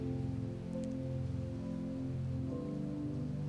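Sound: heavy rain falling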